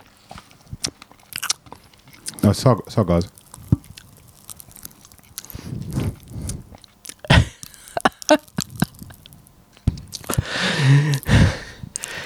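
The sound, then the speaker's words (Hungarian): Bacon-flavored popping candy crackling in a mouth: irregular, sharp little snaps and crunches mixed with chewing, fairly loud, with a few brief spoken words in between. “Nekem már pattog a számba.”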